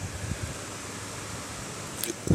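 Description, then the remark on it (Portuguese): Heavy rain pours in Curitiba outside an open window as a steady, dense hiss that fills the room without a break, with a short louder thump right at the end and no one speaking. “Nossa, tá uma puta chuva aqui.”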